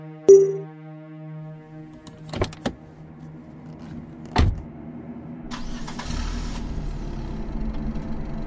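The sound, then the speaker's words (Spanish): A car's electronic chime hums, then a few sharp clunks like a door and key, before the car's engine cranks to life during a storm and settles into a steady idling rumble. “sube a su auto enfrentando la tormenta y las urgencias.”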